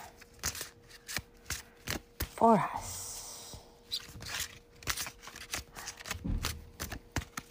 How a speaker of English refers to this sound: As you can hear, I'm shuffling the cards. These ones are quite big, which makes um, shuffling them hard, but they're beautiful and I love them.